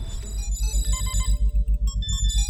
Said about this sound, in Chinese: 正当两个人争执时，电话响了起来。